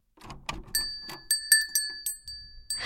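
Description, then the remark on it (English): Small hanging bells jingle as a bright blue door with old stained glass opens and brushes past them, a quick series of bright clinks over sustained ringing tones, fairly quiet, with soft rustling at the start. “When the door opened, it brushed up against bells, creating a song as we all peeked in.”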